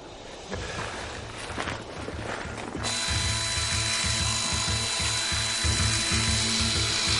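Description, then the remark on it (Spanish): A small circular saw, used by the royal doctor in an improvised operating room to cut into the king's skull, runs with a steady, high, metallic whine over a fast rhythmic ratcheting clatter, growing noticeably louder about three seconds in and holding steady. “En la improvisada sala de operaciones, el médico real maneja una pequeña sierra circular.”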